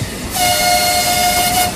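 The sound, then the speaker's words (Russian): A small children's railway steam locomotive pulling four carriages in Ostrovsky Park, Rostov, gives one long, steady whistle blast, loud, over a low background rumble of the running train. No one speaks. “Осенью курсирует только один состав – паровоз и четыре вагона.”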